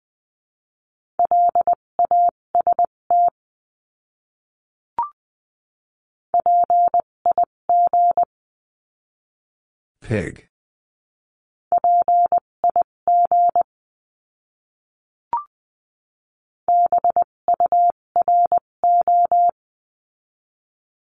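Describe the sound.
Morse code practice words in a steady mid-pitched tone, keyed at 14 to 20 words per minute into crisp short and long beeps across four separate words, with a lone spoken word in the middle and faint clicks between groups.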